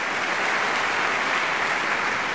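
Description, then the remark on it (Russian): A crowd applauds in honour of actress Lyubov Orlova, a dense, even wash of clapping hands at constant loudness from start to finish, with no voices breaking through. “Я думаю, если мы найдем, сейчас прозвучат аплодисменты в честь э, Любови Петровны Орловой.”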